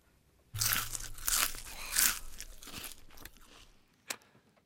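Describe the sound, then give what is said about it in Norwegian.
Loud crunchy chewing with wet smacking, a dense burst of crisp bites over a few seconds that tapers off, followed by one sharp final crunch. “Smattelyder er digg.”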